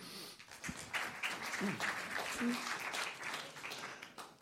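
An audience applauds steadily, a dense wash of many hands clapping that holds at an even level for several seconds, with faint voices murmuring underneath, welcoming a speaker to a panel at the Rendez-vous des transformations du droit.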